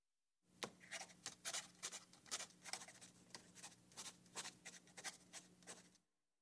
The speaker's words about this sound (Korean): 빈 종이를 꺼내 모니터 받침대에 원하는 조건들을 적어봤습니다.